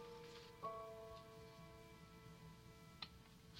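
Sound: rain falling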